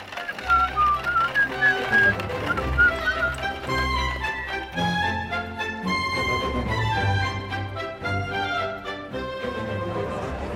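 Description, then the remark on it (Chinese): Robin Hood whistles a cheerful tune while driving a cart to the market square of Nottingham town; the whistling bounces along in quick, bright phrases over a lively musical backing, staying steady and fairly loud for about ten seconds with no talking. “罗宾汉愉快地吹着口哨，驾着马车，赶往诺丁安镇的市集广场。”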